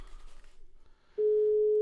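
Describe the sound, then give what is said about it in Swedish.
A telephone ringing tone for an outgoing call placed during a Swedish radio show: after a second of faint background noise, a loud, steady single-pitched tone starts and holds unbroken to the end. The call goes unanswered. “nu ringer vi.”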